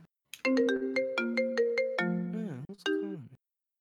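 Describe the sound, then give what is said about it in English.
A mobile phone ringtone plays a quick, bright melody of stacked electronic tones, with sharp attacks and a rapid rhythmic run, loud for about three seconds before cutting off. “Hey man, we silence all our phones on the podcast, so I don't know what you.”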